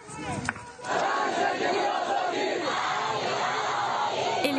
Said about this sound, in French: Hier soir, dans le sud du pays, ce sont les hommes qui scandent ce qui est devenu le slogan du combat.